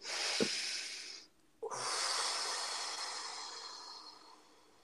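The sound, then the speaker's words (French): A deep breath taken on its own: a breathy inhale, a brief pause, then a long, steady airy exhale that slowly fades. There is no talking. “On va faire une respiration.”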